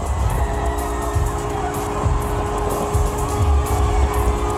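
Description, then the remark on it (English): A huge hockey arena crowd at Tampa Bay roars and cheers continuously after the Bolts won the Stanley Cup, beating the Montreal Canadiens 1-0 in game five of the NHL Finals; a dense wall of noise with whoops rising above it and a faint steady horn-like tone underneath, no one speaking clearly. “That is the crowd at Tampa Bay cheering.”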